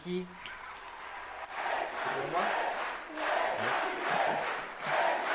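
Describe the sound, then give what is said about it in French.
Members of the majority in France's National Assembly chant "Égalité" in rhythmic unison, mixed with cheering that swells and recedes in repeated waves, after the vote adopting the same-sex marriage bill. It's loud, with many overlapping voices. “Égalité, égalité, crie la majorité.”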